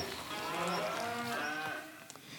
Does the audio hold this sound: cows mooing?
yes